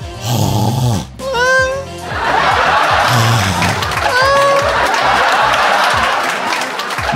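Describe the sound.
A voice mimics a friend's loud, exaggerated, abnormal snoring with rasping, gurgling snorts and whistling wheezes, repeated in rough bursts over several seconds, forceful, with a noisy audience murmur underneath.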